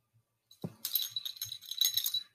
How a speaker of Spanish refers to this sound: Como pueden escuchar su cascabel. Ya está acá. Así que Odi va a ser nuestro acompañante en el episodio de hoy.